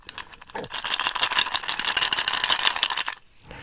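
A cheap drinking glass that came with a bottle of gin being struck in a rapid, rattling flurry, giving a dull, buzzy clatter rather than a clear ring. It lasts a few seconds, with no voices.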